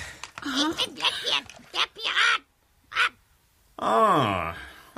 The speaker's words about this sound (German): einen interessanten Vogel haben Sie dort im Käfig.